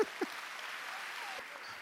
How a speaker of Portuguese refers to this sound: Pode aplaudir, meus discípulos.